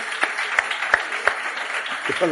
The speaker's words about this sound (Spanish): Un aplauso para ellos dos. Muchas gracias.